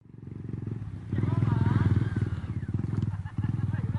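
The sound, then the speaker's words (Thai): A motorcycle engine labors loudly, its throbbing rumble surging and dipping as the throttle is worked while teachers and volunteers ride through mud along a waterlogged route in Sangkhla Buri, Kanchanaburi province, Thailand, to bring milk to students, with a faint squeal riding above it. “สภาพการเดินทางที่ต้องขี่จักรยานยนต์ลุยโคลนผ่านเส้นทางที่มีน้ำขังเกือบตลอดเส้นทาง”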